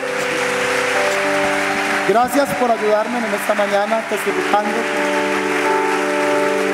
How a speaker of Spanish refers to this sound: Le damos un aplauso al Señor por esto.